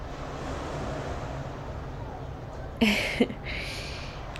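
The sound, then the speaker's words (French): A steady, low wash of ocean surf, heard on a Monday morning from a hotel overlooking the sea, fills the background faintly, with a brief louder rustling burst near the end. “Je sais pas si vous entendez les vagues derrière moi.”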